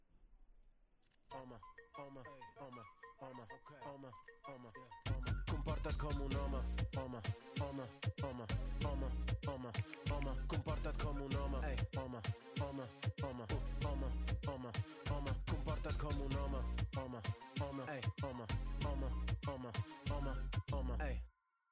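Upbeat music from the presentation video of Barcelona's Centre for Masculinities starts with a soft, sparse intro. A loud, full beat then kicks in and drives steadily until it cuts off abruptly at the end.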